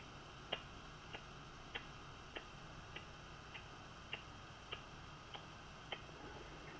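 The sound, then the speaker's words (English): A wall clock ticks steadily, about one sharp tick every 0.6 seconds, clear but quiet over a faint background hiss with no voices. “you get used to it, like uh, the the ticking of the clock in the on the wall, you know, and you we tend to cut it out, uh, and uh, our brain signalizes that uh, everything is okay, so we don't have to worry.”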